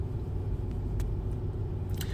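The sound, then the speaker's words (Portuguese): Steady, heavy low-frequency engine and road rumble from inside a moving car, droning continuously for the whole stretch, with a few faint clicks and rattles on top and no talking. “é tanta coisa que eu tô falando, eu tô dentro do carro.”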